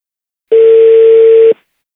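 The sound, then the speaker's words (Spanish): A single steady telephone ringing tone sounds for about one second, loud and low-pitched, as a phone number is redialed, then cuts off cleanly into silence. No one speaks. “a ver, estoy marcando de nuevo.”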